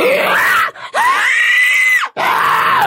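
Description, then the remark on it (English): A person imitates a monster with three loud, rasping inhaled screams, each a sustained gritty shriek separated by brief pauses, harsh with no talking. “the inhale is much easier, much. It's, it feels good to do that, actually.”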